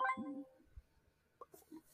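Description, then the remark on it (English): A short, bright phone notification chime from a phone that had been put on do not disturb rings at the start with a clear tonal ring, then fades quickly, followed by a few faint soft clicks and rustles. “did I not just put my phone on frickin' do not disturb?”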